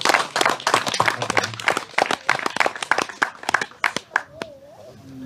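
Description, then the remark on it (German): Audience applause: a dense burst of many hands clapping, loud at first, then thinning into scattered individual claps as it fades toward the end. “Nochmal einen tollen Applaus für den genau.”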